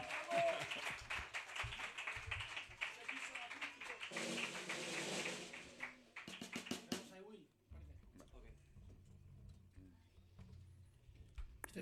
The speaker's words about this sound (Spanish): Fuerte aplauso.